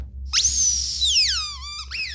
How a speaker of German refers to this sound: Den hättest du jetzt brauchen können, also die, die das geschrieben hat. Die hätte nach dem Podcast diesen Quietscheball haben sollen. Mhm. Die hätte da drauf beißen können und sagen können, okay, jetzt ist alles nicht mehr so schlimm.